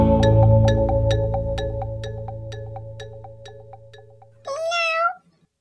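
A single clear kitten meow near the end, loud, rising then falling in pitch. Before it, a steady droning tone with regular ticking beats fades out.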